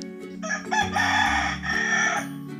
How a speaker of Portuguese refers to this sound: O galo cantou, ele veio avisar, está na hora da leitura.